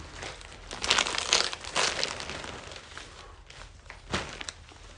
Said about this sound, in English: See, it was a zipper bag. I just have to oh. open it.